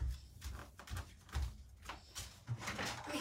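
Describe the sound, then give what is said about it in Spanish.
A chair is grabbed and shifted, with a series of dull knocks and brief scraping bumps spread irregularly over a few seconds, moderately loud. “vamos a agarrar mi silla.”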